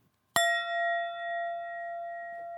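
A single sharp strike of a little mallet on a brass bowl produces a bright, ringing tone with layered overtones that sustains steadily and slowly fades, heard alone.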